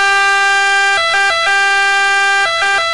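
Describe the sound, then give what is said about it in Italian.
A loud ambulance siren, played at its normal pitch, wails steadily, its pitch stepping up and down in quick wavering bursts before holding a long tone, with no voices. “Cosa succede alla nostra ambulanza se alziamo il pitch del 3%? Ecco, questo è il pitch normale.”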